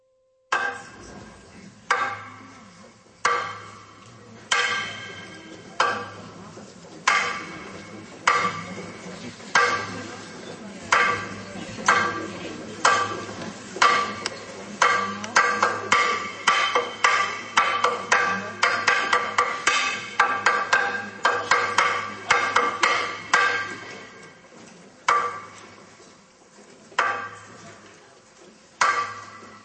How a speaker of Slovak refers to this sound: tuto nejaká tá rytmika, povedzme, na tú veľkú noc nehrá nejakú tú osobitú rolu, ale u tých baníkov to bolo, že ráno pomaly klepal a kedy bolo už 5, pred 5 hodinou, o 3 na 5, tak už rýchlejšie klopal, aby už bežali do tej bani, lebo už je neskoro.